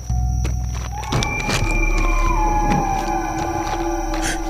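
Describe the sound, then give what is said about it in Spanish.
A long, drawn-out wolf-like howl rises and slowly slides downward, fairly loud, over a steady low rumble of background noise with no one speaking. “creo que es un hombre lobo que nos acecha.”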